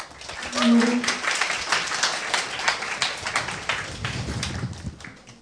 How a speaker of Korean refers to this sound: 오늘 방언이 터져주길 기대하는 마음으로 두 분 박수와 함께 다시 한번 모시겠습니다.